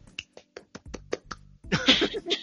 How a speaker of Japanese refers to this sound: なんか、拍手が聞こえたな、ね。初ですね。は、来日初グランドスラムと。